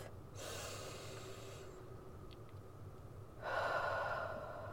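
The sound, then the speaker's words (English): A long, deep breath is drawn in during a breathing exercise, inhaling for five seconds, followed by a quiet held pause of about two seconds before a strong rush of breath starts again, with no talking. “Inhale for five seconds.”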